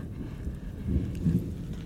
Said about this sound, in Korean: 비가 오려는지 바깥에서 은은한 천둥 소리가 우르릉 우르릉 들려오고 있었지만 인기척은 없었다.